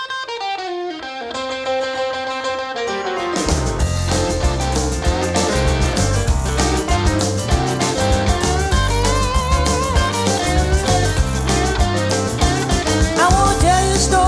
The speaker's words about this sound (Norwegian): og vi skal rett og slett høre tittelsporet